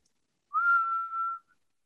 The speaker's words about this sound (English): Um, … will stand up and kind of go to the edge of the pit and just do her like little like whistle that she sometimes does for root to see if he'll come or not.